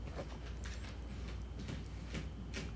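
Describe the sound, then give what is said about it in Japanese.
A pet cat that has just finished its breakfast scratches in its cat litter at home in Okinawa, Japan: a series of short, gritty scraping bursts at an uneven rhythm, fairly quiet, over a low steady background hum. “しょっぱなから猫が、猫砂をかく音が入って、おります。”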